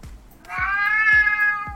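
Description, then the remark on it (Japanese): A person's voice imitates a cat, drawing out one long, clear, nasal meow that rises and holds steady for over a second, fairly loud, with soft low thumps underneath. “ふざけてるわけじゃないのよ頭の中猫まみれなの”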